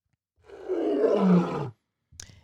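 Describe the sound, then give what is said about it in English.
A man lets out one loud roar in imitation of a big cat, a rough growling bellow of over a second, followed by a brief sharp noise after a short pause. “I just, I ended, I roared, and now we transition to the interview.”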